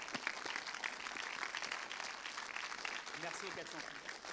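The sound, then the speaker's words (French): A crowd applauds steadily, a dense wash of many hands clapping that stays fairly even throughout, with a voice briefly audible through it near the end. “Je voudrais vraiment un tonnerre d'applaudissements”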